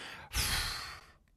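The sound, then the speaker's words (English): A person imitates the sigh a dog makes when it finally flops down in its bed: one long, breathy exhale that starts abruptly, stays fairly loud, then fades out after about a second. “That's the dog laying down sigh.”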